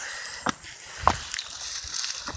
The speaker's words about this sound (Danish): Ja, jeg sidder og slår vand og mudder af, af mine badesko.